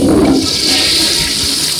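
A toilet flushes loudly, a steady rushing swirl of water that holds strong for about two seconds with no voices over it.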